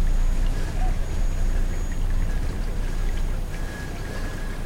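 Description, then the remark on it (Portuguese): A ferry's engine rumbles low and steady as the boat trip nears its end, with water churning beneath and faint, thin tonal whines drifting over the top, growing slightly brighter near the end. “Oh, esse som significa que o nosso passeio de barca está chegando ao fim.”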